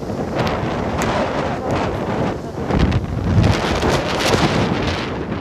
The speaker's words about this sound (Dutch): Even mijn hand voor de microfoon, want het waait heel hard.